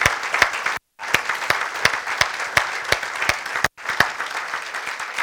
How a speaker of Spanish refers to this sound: Yo le pido que se una conmigo y le demos un aplauso de agradecimiento al Dios Todopoderoso. Gracias, Gracias.